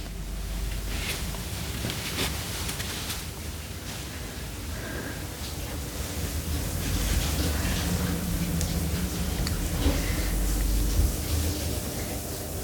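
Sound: shower running water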